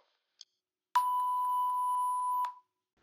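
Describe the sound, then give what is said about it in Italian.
A short click, then a single steady electronic telephone answering-machine beep holding one clear pitch for about a second and a half before cutting off, loud, with nothing else around it. “Lasciate un messaggio, tanto non lo ascolterò.”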